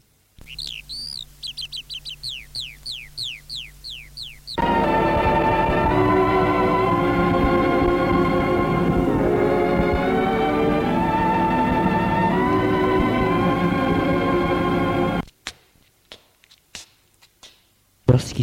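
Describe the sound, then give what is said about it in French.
Birds chirp in quick repeated sweeping notes for a few seconds before a loud, dense sustained sound takes over, followed by scattered clicks and taps near the end. “On entend le bruit des oiseaux.”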